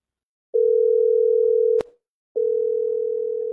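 signal or alarm, telephone dial tone

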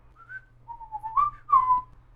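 bird, birds singing

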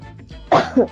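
human body sound, coughing

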